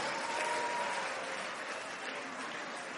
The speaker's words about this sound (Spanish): Caballeros, solo escuché aplausos femeninos. Aplauda porque si no se va a meter en un lío.